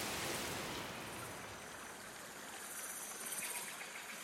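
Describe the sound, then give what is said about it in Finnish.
Heavy rain pours down in a rainforest in a dense, continuous hiss that fills the whole soundscape, steady and unbroken from start to finish with no voices audible. “Milloin tämä sade loppuu?”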